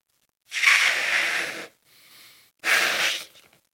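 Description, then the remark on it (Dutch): Two long, forceful breaths blow into a balloon, each a broad airy rush lasting over a second, with a softer, quieter breath drawn in between them. No one speaks. “En ik blaas de ballon op, dan zul je zien dat alle andere sterrenstelsels bij jou vandaan gaan.”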